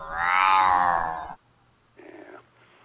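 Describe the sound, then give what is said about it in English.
A loud, drawn-out meow with a falling pitch lasts over a second. After a short pause comes a briefer, fainter second cry, with a low steady hum underneath. “And when you go listen to him, make sure when you crank it up, you sing this to it. B U M W I N E B O B C A T meow.”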